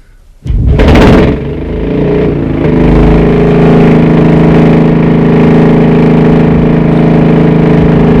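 A vehicle's cold petrol engine, with a full petrol tank, cranks over with a brief loud whirring burst, catches, and settles into a steady, loud, low droning idle as it is left running to warm up, humming evenly to the end, with no one talking.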